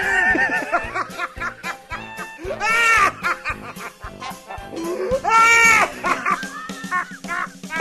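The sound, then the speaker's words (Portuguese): A canned laughter sound effect plays in loud bursts of high, wavering cackles that rise and fall over about eight seconds, with no talking underneath. “Essa é a deixa da, da risada agora?”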